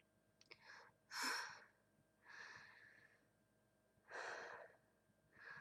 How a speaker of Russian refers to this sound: Спокойнее дышите. Плавно, она плавно стала дышать.